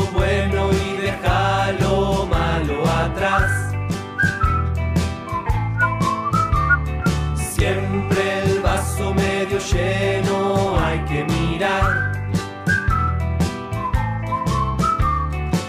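A person whistles a bright, bouncy tune in short melodic phrases, carried over a full band accompaniment with steady bass and rhythm throughout.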